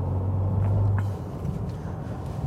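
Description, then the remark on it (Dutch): Steady low road and engine rumble from a car driving in traffic near a truck, with a deep droning hum in the first half that fades out, leaving a continuous roar. “En ik moest even goed naar een vrachtwagen kijken.”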